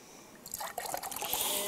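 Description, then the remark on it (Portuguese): Milk poured into a glass, a steady trickling splash that starts after a brief quiet moment and continues with bubbly, rising sounds, fairly soft. “Como é que você sabe que é um copo de leite?”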